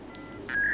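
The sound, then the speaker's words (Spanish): Dial-up internet modem noise heard on a phone line when the telephone receiver is picked up: a short hissy burst, then a steady electronic tone that swells louder and holds until the end, with no one talking. “Vos levantabas el teléfono y er-, era este ruido el que hacía. Porque el, el internet entraba por la línea del teléfono.”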